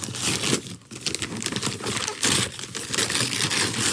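Wrapping paper crinkles and tears in a steady, noisy stream of rustles and rips as a gift from a box is unwrapped, loud and continuous with brief pauses, with no talking over it.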